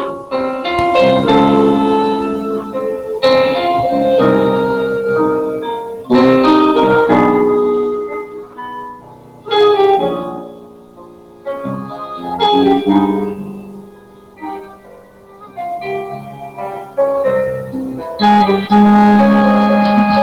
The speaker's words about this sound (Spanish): Y bueno, adelante con, tu música, queremos escuchar esa zamba